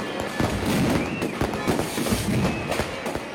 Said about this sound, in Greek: Το βράδυ του Μεγάλου Σαββάτου, μία μεγάλη εξαέδρα στείνεται στην πλατεία Συντάγματο λαμπάδες, λαοθάλασσα δημιουργούν μια μοναδική εικόνα. Μη φοβηθείς όταν η ώρα πάει 12, γιατί τα βεγγαλικά θα κάνουν γιορτή.